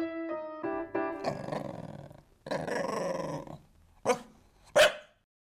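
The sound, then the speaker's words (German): A small dachshund whines in rising tones, then growls in two long, rough stretches before ending with two sharp, loud barks. No one speaks. “Der Dackel, ein Hund, der wie kein anderer zu Bayern passt.”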